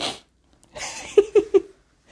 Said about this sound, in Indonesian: Ini nggak diedit lagi ya, nggak bisa ngedit. Ntar potong-potong, harusnya dipotong-potong, diedit, ada bersinnya lagi.